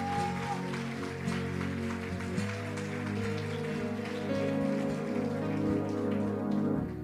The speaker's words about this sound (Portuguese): Quando você recebe, diga amém e dê um aplauso bem forte ao Rei da Glória. Ah, pode ser melhor, vamos juntos.